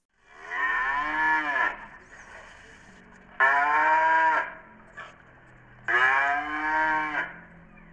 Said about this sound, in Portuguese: No campo, em meio ao pasto verdinho, duas vacas.